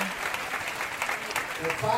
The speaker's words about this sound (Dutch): Uit Spanje. Uit Spanje. Een, een applaus voor de broeders uit Spanje.